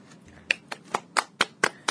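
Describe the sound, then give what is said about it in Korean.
Seven sharp hand claps in a quick, steady rhythm, each a crisp bright slap, ringing out on their own with no talking, clapping to celebrate reaching plus 6 in a game broadcast. “이제 박수를 좀 쳐야겠어요.”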